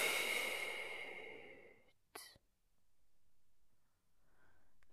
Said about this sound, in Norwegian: Da begynner vi med å puste godt inn med nesa, og så hold pusten. Og pust ut.